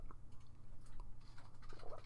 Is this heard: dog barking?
no